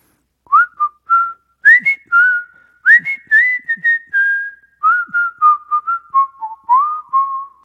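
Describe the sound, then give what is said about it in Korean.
Someone whistles a melody alone, a series of clear, mid-to-high pitched notes, some short and some held, moving up and down in a steady, tuneful phrase for several seconds. “그럼 휘파람 소리 좋아하신다고 하니까, 어, 한번 불어보도록 하겠습니다.”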